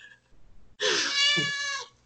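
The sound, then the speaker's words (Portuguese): A female cat lets out a single loud, drawn-out meow lasting about a second, with a bright harmonic tone and no talking. “Até a gata tá concordando comigo agora.”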